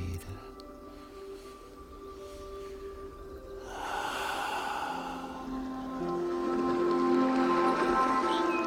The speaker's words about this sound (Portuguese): Uma profunda respiração, profundiza tua respiração. inala por la nariz, suelta por la boca.